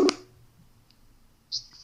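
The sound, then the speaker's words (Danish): A sharp click, then a short high electronic beep about a second and a half later, like a phone call to a friend connecting and ringing out, over a quiet background. “ringer jeg lige til.”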